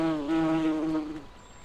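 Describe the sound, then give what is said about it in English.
A bee buzzes in a steady, rich droning hum that holds for just over a second before fading away, with no voices present, as bees fly from flower to flower gathering nectar in warm sunshine. “Together they buzzed from flower to flower,”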